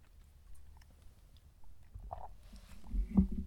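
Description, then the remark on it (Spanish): Someone takes a quiet sip of very hot coffee, with a few soft mouth noises and a brief slurp near the end. No one speaks. “pausa para trago de café.”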